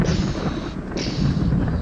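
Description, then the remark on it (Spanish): Heavy, continuous thunder from a great storm, a loud deep rumble with a steady roaring wash over it, swelling slightly toward the end. No voices are heard. “La tormenta era muy grande,”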